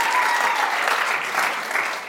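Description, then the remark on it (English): A crowd of people clapping and applauding together, a dense, steady wash of hand claps that stays loud and sustained for the whole two seconds. “You know, yeah, if we're going to clap, if we're going to clap, we're going to clap properly.”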